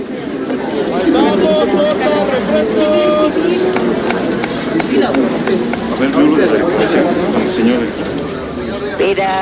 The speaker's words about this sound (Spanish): Así suena la comida callejera en México. Paisaje sonoro.